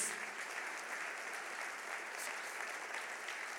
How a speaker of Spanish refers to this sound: Le damos un aplauso al Señor Jesús.